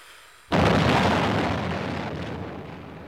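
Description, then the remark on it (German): A single loud explosion bursts in abruptly after a brief quiet moment, a broad heavy bang whose rumbling roar slowly fades over the next few seconds. No one speaks. “Das störende Geräusch, das dieses gemütliche Plauderstündchen soeben je beendet hat, haben Sie, verehrte Hörer, zweifellos richtig als den Knall einer Explosion identifiziert.”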